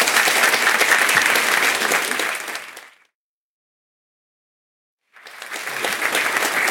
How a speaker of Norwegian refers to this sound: Da ønsker jeg velkommen forsvarssjef eh, og general Eirik Kristoffersen. Da eh, klapper for han òg, ja.